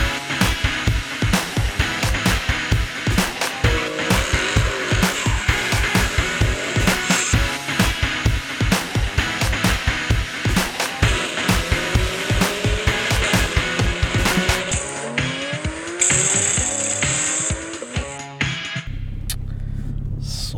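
Cars at the Nordic Time Attack track day at Mantorp Park roar around the track, engines droning loudly and continuously with rising and falling revs as they shift and accelerate, with wind rumble buffeting the microphone near the end.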